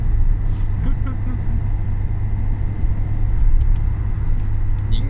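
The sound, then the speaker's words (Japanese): Steady, loud low rumble of road and engine noise inside a moving Jimny small car on an expressway, a continuous droning roar throughout, with light rattles and faint voices in the background. “まあ高速道路のこのノイズ感がどれぐらいかっていうのは結構大きい気がするんだなああそういうことね雑音が下道じゃねえしなうんロードノイズしかもジムニーやし終わっとる なんかエンジン音もうるさいしな”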